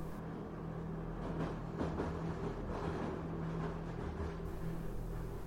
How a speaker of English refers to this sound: The train has entered another tunnel. Everything goes dark. The sound of the train rumbling through the tunnel echoes off the walls.